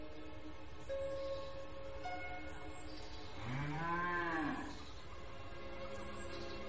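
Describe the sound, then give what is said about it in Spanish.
A cow on a farm at night lets out a single long, low moo that rises and bends in pitch, rich with harmonics, lasting about a second and a half over a quiet background hum. “De noche en una granja, una chica rubia de unos 16 años acaricia a una vaca.”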